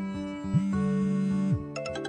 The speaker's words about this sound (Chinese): 手机响了，拿起来一看，是温情的电话。屏幕的下半部分显示尚有三十六个未接来电。